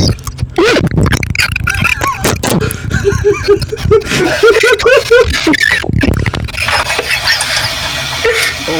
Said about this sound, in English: He's just tapping the mic.